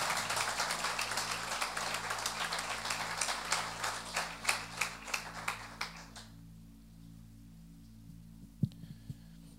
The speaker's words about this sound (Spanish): ¿Están acá? Denle ese fuerte aplauso al Señor. Aleluya.